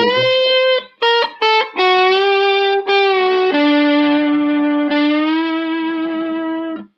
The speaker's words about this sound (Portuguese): Olha, olha a diferença do slide de vidro. O slide de vidro com ele ardido, ó. mais ardido.